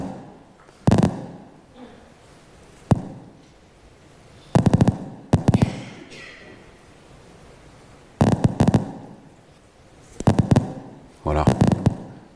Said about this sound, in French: Vous entendez le neurone, les décharges, et vous voyez qu'à chaque fois qu'il y a un visage, eh bien, il y a des décharges du neurone.